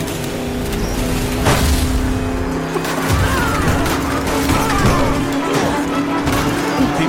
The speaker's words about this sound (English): a truck has traveled through time and is attacking a medieval uh, uh, army.